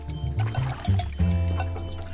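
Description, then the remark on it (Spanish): Watery sloshing and dripping as punting poles push trajineras, the small flat boats of Xochimilco, through a canal of calm green water, with soft splashes and gurgles over a low, steady rumble. “Esto que estamos escuchando es el sonido de las pértigas con que los navegantes de Xochimilco impulsan, desde hace siglos, sus trajineras”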